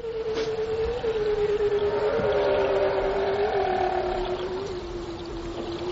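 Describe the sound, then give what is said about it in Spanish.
A bearded seal vocalizes in one long, eerie, drawn-out note that wavers slightly as it holds steady for several seconds, with a faint higher overtone over a hissy background. “Foca, pero barbuda, que suena diferente.”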